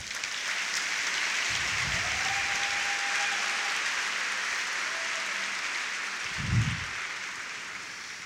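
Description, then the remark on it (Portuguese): A large crowd at a church worship service claps steadily for the Lord throughout, a dense, continuous wash of applause, with a few low thuds and a brief tonal hum beneath it. “Aplauda o Senhor, querido.”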